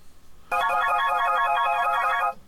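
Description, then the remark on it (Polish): A bright electronic ringtone of a BlindShell phone plays loudly for about two seconds, a dense melodic tone pattern starting abruptly and cutting off, with no talking over it. “To są dzwonki telefonu Blind Shell.”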